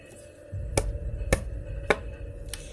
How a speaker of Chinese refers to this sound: 只见老山羊敲响了狐狸家的门。